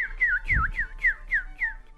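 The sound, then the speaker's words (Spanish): A radio announcer whistles an imitation of birdsong: about seven quick, swooping chirps repeated in a steady rhythm, fairly loud, with no talking. “Eso es un locutor chiflando.”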